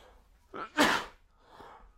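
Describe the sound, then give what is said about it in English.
A quick inhale, then one sharp, explosive sneeze from a dust allergy, followed by a softer, breathy exhale. No one speaks. “um, I also have dust allergies. So there must be a bit of dust in here.”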